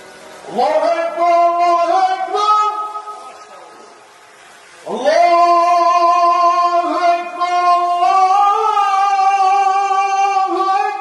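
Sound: muezzin's call to prayer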